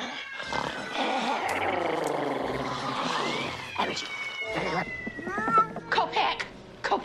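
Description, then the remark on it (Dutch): Pepe, a cat in the film Gremlins, yowls in a long, drawn-out wavering meow, followed by several shorter, sharp meows and cries, loud. “You stop that, you bad kitty.”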